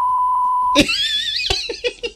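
A steady, pure censor bleep holds at one pitch for under a second, then cuts off abruptly as high-pitched laughter and excited voices burst in.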